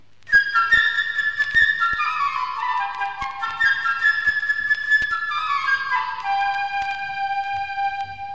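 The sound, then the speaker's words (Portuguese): A solo flute plays quick, bright trilling runs and fluttering notes, clear, with many rapid notes stepping up an ascending scale for several seconds, without any voices; the flute theme represents the little bird Sasha. “Para o pequeno pássaro que é muito travesso e que se chama Sasha, nós ouviremos a flauta numa escala crescente.”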